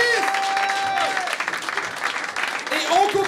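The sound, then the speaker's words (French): A crowd applauds steadily with dense, crackling clapping throughout, joined by whistles and cheering voices rising above the noise. “On applaudit tout le monde, on donne de l'énergie.”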